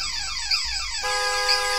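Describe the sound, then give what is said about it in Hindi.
The horn of a badly wrecked car, just crashed in an accident, blares without a break, loud, its harsh tone sliding lower at first and then holding steady to the end. No one speaks. “horn का बजना पहले तो लगातार रहा लेकिन फिर रुक रुक के पूरी तरीके से बंद हो गया”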